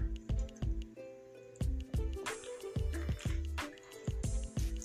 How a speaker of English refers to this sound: Hold on, let me take a sip of this uh this water.